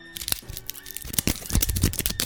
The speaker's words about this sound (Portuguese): Tá, tá comendo o microfone? O que tá fazendo? É, eu, eu, é, cara, eu dei o meu melhor, eu dei o meu melhor. pegou a caneta e tá apertando assim no mic. É, mas foi uma boa sonoplastia, a gente aceita, vai.